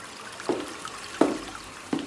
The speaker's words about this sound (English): they put your head, the back of your head, into the sink and they turn on some warm water